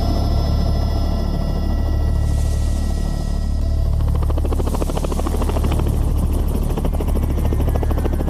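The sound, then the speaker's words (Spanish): A helicopter's heavy, steady rotor thumping and engine roar fill the scene, loud throughout, with a constant low rumble and no voices, as the helicopter sets off at midday. “Partimos a mediodía. En el helicóptero.”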